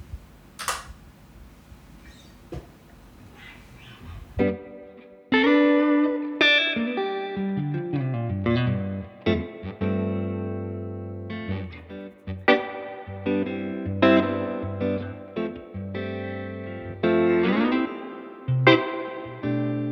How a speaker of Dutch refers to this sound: Maar het is gewoon een heel, heel bruikbare, bruikbare gitaar. En vooral voor die Strat sound is, is het perfect.